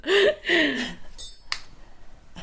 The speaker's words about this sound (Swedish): Att jag, får inte, jag får inte upp min flaska nu. Jag kanske skulle ha preppat det här innan.